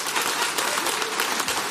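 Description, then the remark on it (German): A crowd applauds steadily, many hands clapping in a dense, continuous patter that holds an even loudness throughout, with no voices standing out. “Ja, klatscht alle das gern runter.”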